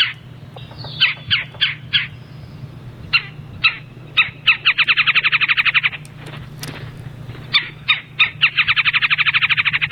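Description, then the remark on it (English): Sharp, high woodpecker calls ring out singly and in short clusters, broken up by two fast rattling trills, clear over a steady low hum. “So once winter comes in, these will be part of a multi-species flock with several other woodpeckers and also the chickadees and titmice uh-huh.”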